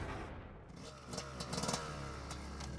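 Francis Leschiera revs his motorcycle on a road to scare off a large barking German shepherd, the engine's throaty growl rising in a few sharp bursts with mechanical clatter over a steady low rumble.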